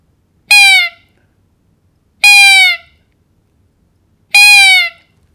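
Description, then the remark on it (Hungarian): A roe deer doe calling to a buck gives three thin, high, plaintive calls, each a short slightly falling squeak, evenly spaced about two seconds apart against near silence. “Ez egy vékony, lágy, nem is olyan túl hangos hang egyébként.”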